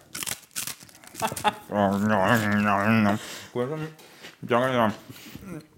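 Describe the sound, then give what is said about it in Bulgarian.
Crisp crunching of dry rusks, eaten instead of soft bread, chewed in quick bursts, followed by drawn-out voiced sounds, like laughing or humming, with a few more crunches in between. “А, значи, вместо да вземе някакъв мек хляб да ядем, е избрала сухари, които аз ако ги ям, ще звучи така.”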